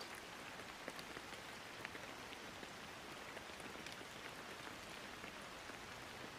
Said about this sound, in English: Listen to the dance of rainfall around you and inwardly allow this whisper of truth to sink into your mind.